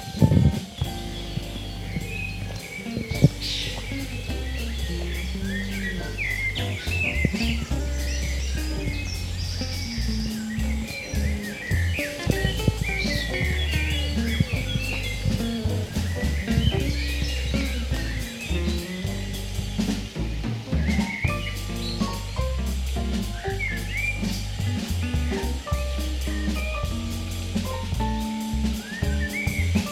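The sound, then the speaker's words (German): Birds chirp and twitter steadily over a continuous splash and trickle of water in a park (Ilmenau-Anlage) in the middle of a city, with a low rumbling outdoor background throughout and no one speaking. “Es zwitschert, es plätschert.”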